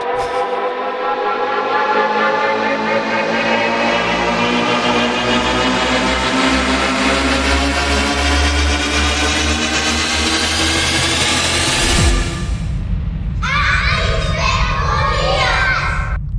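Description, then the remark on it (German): A short, loud jingle packed with children shouting together over music, the dense chorus of young voices swelling for several seconds before switching to a brief burst of livelier yelling at the end. “Du darfst doch selber überlegen, was die Kinder schreien.”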